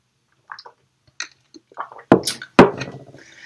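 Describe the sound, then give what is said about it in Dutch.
Soft slurping and swallowing sounds of someone taking a sip of water, followed by two sharp clunks like a glass being handled and set down, with no talking. “Ik neem even een slokje water.”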